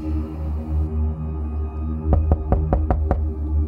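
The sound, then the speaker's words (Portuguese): Six sharp knocks on a wooden bedroom door in a quick, even rhythm, fairly loud over a low steady hum. “Ela procurou Meredith para falar sobre isso, mas ao bater na porta do quarto, ninguém respondeu.”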